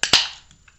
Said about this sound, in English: And uh, I'm going to crack open a cold one here.